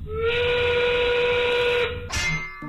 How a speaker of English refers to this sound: The 5 o'clock whistle, powered by smart local union 9 sheet metal workers.